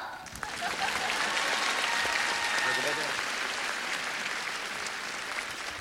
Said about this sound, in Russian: мы тебя поздравляем с дебютом в Москве на сцене «Крокуса». Слышишь, какие аплодисменты? Спасибо вам большое.